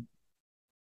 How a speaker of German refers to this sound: das war ein Hund